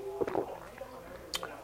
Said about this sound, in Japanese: ええでしょ、うん、もう熱帯魚のブクの音とシュプシュプシュプってね民放のワイドショーの声しか聞こえないですよ